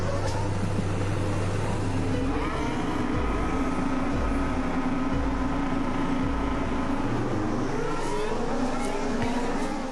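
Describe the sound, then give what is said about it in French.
Formula 1 cars roar loudly off the starting grid of a Grand Prix as the light turns green, a dense wall of high-pitched engine noise with revs climbing and sweeping upward as several cars accelerate together, continuous throughout. “Quand les voitures se placent sur la grille de départ et attendent le feu vert, on entend ceci.”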